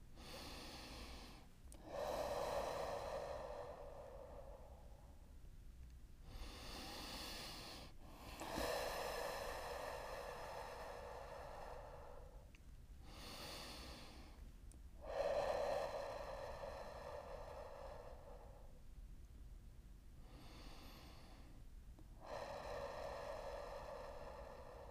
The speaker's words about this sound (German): Wir fangen an mit dem Atmen. Atmet jetzt richtig tief in euren Bauch hinein bis ins Wurzelchakra.